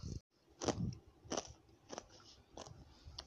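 Someone crunches and chews ice in a series of sharp, crackly bites, about five loud crunches spaced roughly every half second, with no talking.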